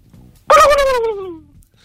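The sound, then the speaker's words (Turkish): A single loud, warbling call, a person's voice imitating a turkey gobble, bursts in after a quiet moment and slides downward in pitch for about a second before fading. “Hindi mi bu?”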